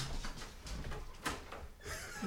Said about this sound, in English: Creepy door. Maybe we should unlock the door for her and let her in.